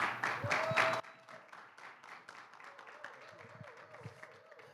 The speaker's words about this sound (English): Yeah, give him a hand clap.